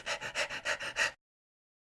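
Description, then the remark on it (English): A person imitates a dog panting, with about six quick, rhythmic breathy huffs in just over a second, fairly loud, then silence. “like a dog, he's panting like a dog.”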